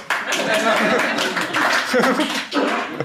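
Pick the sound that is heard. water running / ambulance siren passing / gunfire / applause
applause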